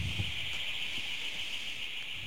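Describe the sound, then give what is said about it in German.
A smoke detector fire alarm sounds a steady, shrill high-pitched tone that holds without a break over faint low background rumble, with no one talking. “Oh, jetzt ist der Feueralarm angegangen. Rauchmelder.”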